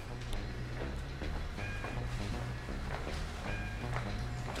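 Footsteps of people walking through the streets of São Pedro, a series of soft, uneven scuffs and taps over a steady low rumble, with a few faint high tones drifting through the background.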